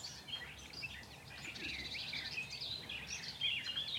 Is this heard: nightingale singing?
yes